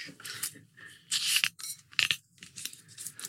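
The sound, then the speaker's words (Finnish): Crackling and ticking as an old-style metal screw cap is twisted off a Koskenkorva vodka bottle, with a few sharp snaps where the seal breaks, heard alone. “Ihmiset rakastaa kuunnella näitä korkien avaamisia.”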